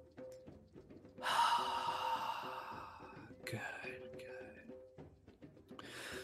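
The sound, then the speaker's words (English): A deep, drawn-out breath in followed by a loud, breathy exhale, over soft sustained background music with no talking. “Deep breath, big inhale, loud exhale.”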